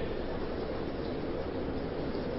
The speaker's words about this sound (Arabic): تكييف تكييف عالي يا جماعة كلنا متضايقين منه مين حابب التكييف يتقفل